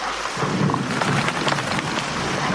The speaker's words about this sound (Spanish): Pero si está diluviando.